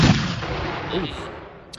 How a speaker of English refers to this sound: Uh, t-shirt cannon.